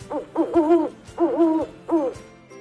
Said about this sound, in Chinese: 大奇说：“猫头鹰喜欢在夜里出来寻找食物，它们的叫声就是‘呜呜’。” 猫头鹰又叫了。